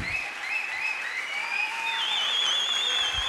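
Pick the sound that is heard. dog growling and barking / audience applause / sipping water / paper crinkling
audience applause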